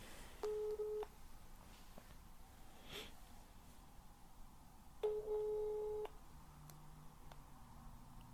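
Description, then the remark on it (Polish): A phone ringback tone while a call goes through: two steady, mid-pitched beeps, each about a second long, separated by a few seconds of quiet background hiss and a faint breath. “Wybieram numer.”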